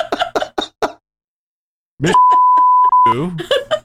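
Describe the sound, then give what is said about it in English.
A single steady censorship bleep tone sounds for about a second, loud and flat, laid over a voice to bleep out a swear word; brief bursts of talk and laughter come before and after it. “Well, I have to beep that one out.”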